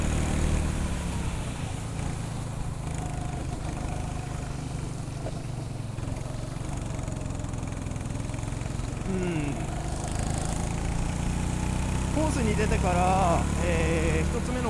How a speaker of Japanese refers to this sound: コーナーを曲がるところ、えー、続けてクランクというカーブが続くエリアがあるんですけれどもそこがなかなかくせもんですねエンジンの回転数がかなり落っこっちゃう